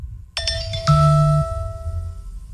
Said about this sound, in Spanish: nos va a hacer una demostración de cómo suena su alarma